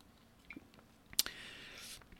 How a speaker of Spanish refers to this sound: antes le voy a dar un traguito a mi café. Mm.